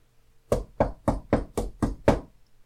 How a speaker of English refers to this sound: Here I am. I stand at the door and knock.